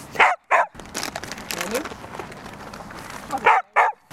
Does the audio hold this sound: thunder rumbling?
no